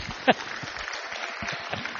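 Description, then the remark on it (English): A crowd of people applauding, a steady dense patter of many hands clapping, with one sharper, louder clap standing out near the start. “Oh, you can clap if you want.”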